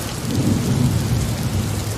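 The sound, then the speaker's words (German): A thunderstorm: heavy rain pours in a steady, dense hiss while deep thunder rumbles low and continuously underneath, loud, with no voices. “und drohte dem Sturm, sei still.”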